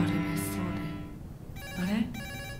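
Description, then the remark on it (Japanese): A telephone in a horror sound game made with Sony, set at a secluded villa by the sea, rings with a bright electronic trill, two short bursts separated by a pause, alongside a sustained musical tone. “変だねあの電話壊れてたのに”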